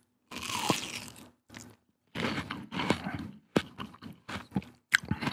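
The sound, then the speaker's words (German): Someone chews crunchy triangular cut-out watermelon-flavoured snacks topped with dark red paprika and pepper seasoning: several loud, crackly bites and grinding chews in an irregular rhythm, with short pauses, ending in a few sharp crunches. No one speaks. “Jetzt tue ich mal Verwässerte.”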